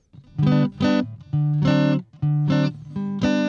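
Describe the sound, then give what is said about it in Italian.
Dry acoustic guitar strums during a sound check, about six chords in quick uneven pairs, each ringing briefly before the next, played alone with no voices and no reverb tail. “se vuoi fare un attimo attimo un okay, check alla chitarra. Io in questo momento sei completamente al naturale, non c'hai sì. il riverbero, eh?”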